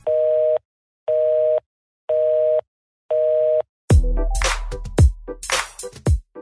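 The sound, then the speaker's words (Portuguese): After the telephones are hung up at the end of the workday, a telephone busy signal sounds four loud, evenly spaced tone pulses, followed by a burst of noisy, clattering sounds with quick sweeping swishes. “Vamos desligar os telefones e também os nossos tickets aqui.”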